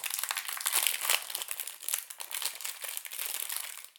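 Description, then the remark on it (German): Continuous crinkling of a plastic snack package being worked open, a dense crackly rustle of many small irregular crackles lasting several seconds, fairly loud and with no speech. “Oh, das ist bestimmt schön in den Ohren, wenn das hier so knistert.”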